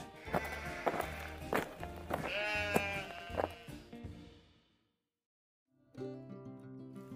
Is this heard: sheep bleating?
yes